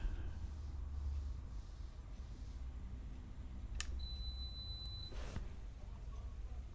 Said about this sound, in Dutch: Oh, en, en, en niet een aanhoudende piep? Nee. Oh, dat is de afwasmachine dan die klaar is. Oh, hoe lang duurt dit? Nou, het piept wel dan net iets te vaak, maar eh, ook weer niet uren.